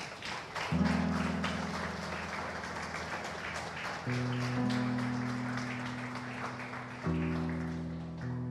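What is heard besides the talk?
audience applause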